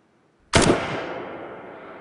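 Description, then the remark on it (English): A single sharp gunshot cracks out, then rolls into a long, spacious echo from added reverb that slowly fades, making it sound as if recorded in a wide open canyon. No voices. “By adding reverb, we can make it sound like it was recorded inside a bathroom or like it was recorded inside a chapel or a church, or in a canyon.”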